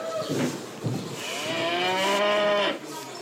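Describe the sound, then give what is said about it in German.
Cows low in an open barn on an organic farm as they are about to be fed: a couple of short grunting moos, then one long, drawn-out moo that swells and fades, loud, with no talking. “Jetzt sollen die Kühe gefüttert werden.”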